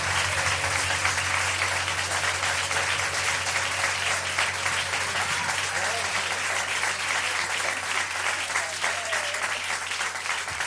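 Sustained applause from a large audience after a song performed with a singer, steady and dense for about ten seconds, with a faint low hum running underneath and no clear voices on top.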